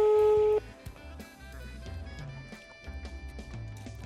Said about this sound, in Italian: Sta squillando il telefono